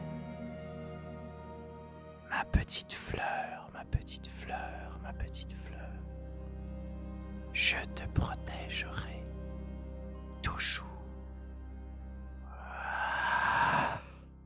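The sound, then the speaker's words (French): Soft, breathy whispering close to the ear, broken into short hushed bursts with pauses, ending in a longer drawn-out airy exhale like a sigh. “Puis pour terminer notre partie, t'entends juste un murmure à ton oreille.”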